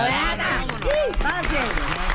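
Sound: applause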